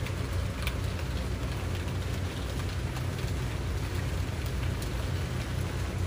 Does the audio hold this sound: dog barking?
no